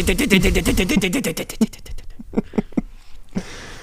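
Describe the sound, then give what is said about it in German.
A voice mimics a dot-matrix printer: a fast run of buzzy, rapid-fire vocal pulses for about a second and a half, then slower, scattered clicks and chirps, fairly loud. “Dass das, ähm, auch dieser Drucker, kennst du diesen Nadeldrucker, der da Die, so schön diese Geräusche macht?”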